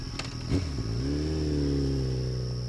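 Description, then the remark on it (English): A motorcycle engine revs up, its pitch climbing after a brief sputter and then holding a steady, throaty growl, with a faint high whine above it. “And then Todd buys a motorcycle.”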